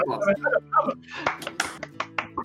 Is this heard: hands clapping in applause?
yes